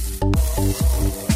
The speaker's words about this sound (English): The sound of beef sizzling on the grill, like music to your ears and melody to your mouth.